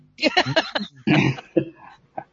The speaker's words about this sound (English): Cough some more.